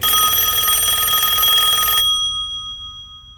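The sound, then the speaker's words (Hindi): A landline telephone bell rings loudly again for about two seconds in a dense, continuous metallic trill, a call from an ambulance service, then cuts off abruptly, leaving a faint lingering ring and low background hum. “उसका लैंडलाइन एक बार फिर बजा”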